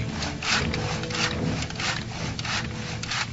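A slave repairs a wooden chariot in Rome: steady, rhythmic strokes of sawing or rasping on wood, about two per second, moderately loud and continuous, with no voices.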